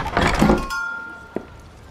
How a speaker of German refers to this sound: Also öffnete ich die Tür und betrat den Laden.